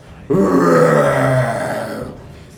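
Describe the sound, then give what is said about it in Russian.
A single deep, guttural bear roar bursts in abruptly, loud, rumbling for about two seconds before trailing off, with no other sounds around it; the roar carries across a valley. “Вы слышите рев медвежий, который разносится по долине.”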